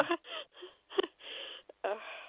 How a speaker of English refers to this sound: I'm crying right now.